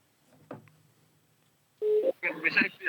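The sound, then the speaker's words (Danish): A faint, quiet stretch gives way to a short, loud, steady telephone tone as a call is placed to a woman, followed right away by a voice speaking over the line. “Og jeg synes, vi skal prøve at ringe til hende.”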